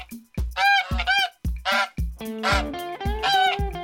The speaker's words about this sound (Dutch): Nou, we zitten hier heerlijk op het gras. Er lopen wat eh, eenden en eh, ganzen in het rond.